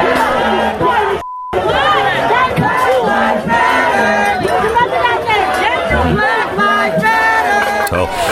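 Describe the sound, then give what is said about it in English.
A crowd of Black Lives Matter protesters shouting and chanting loudly and continuously at restaurant diners in Rochester, New York, shutting the restaurants down, many overlapping voices, with a brief censor-style beep cutting in near the start. “If you are out at a restaurant, here are the protesters shutting down the restaurants in Rochester, New York over the weekend.”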